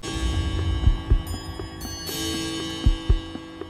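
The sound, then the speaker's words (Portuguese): Several clocks, recorded at random and combined in a studio, tick in an uneven, overlapping rhythm while sustained metallic chime tones ring underneath, with a couple of bright, brief bursts of ringing layered over the steady ticking. “dos relógios aleatoriamente assim e depois fez uma junção no estúdio.”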